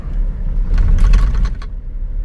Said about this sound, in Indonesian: Dan maafkan kalau misalnya suara berisik juga, karena gue di mobil